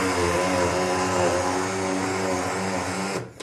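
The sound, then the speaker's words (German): A blender runs steadily as it purees rhubarb, a loud, even motor whine with a dense rushing hum that holds for about three seconds, then cuts off abruptly. “Warum pürierst du?”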